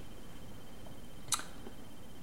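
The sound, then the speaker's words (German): A single sharp click as a camera is repositioned, sounding once against quiet background hiss, brief with no voices. “richtet die Kamera anders aus.”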